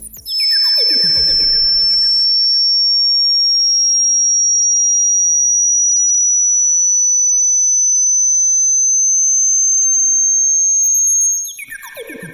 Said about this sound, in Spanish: Va de nuevo la frecuencia entre 8000 y digamos que 11900 Hz.